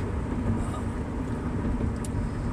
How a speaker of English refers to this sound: there's a loud ass fucking car right next to me. It's right next to me on my left. Please turn yes, thank goodness. Away from me.